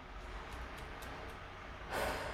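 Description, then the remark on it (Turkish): A single deep breath drawn in near the end, a brief airy rush after a quiet stretch of low room noise. Nobody speaks. “Şöyle bir derin nefes alma ihtiyacı hissettim.”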